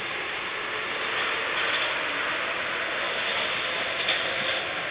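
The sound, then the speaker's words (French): A steady, loud rumbling roar of a metro train running along the rails, a continuous dense noise with slight swells and no voices. “Son corps joue de l'instabilité et suit, tout en souplesse, les secousses du métro.”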